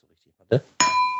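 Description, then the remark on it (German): A single bright clink of glasses touching in a toast during a spirits tasting, leaving a clear ringing tone that sustains and slowly fades, preceded by a brief muffled bump. “Äh, ja, wir stoßen an.”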